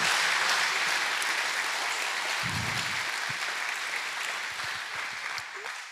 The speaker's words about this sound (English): Can we clap our hands in the presence of God tonight?